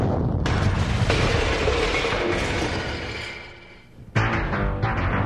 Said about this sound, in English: The blast knocked out all the windows down the street.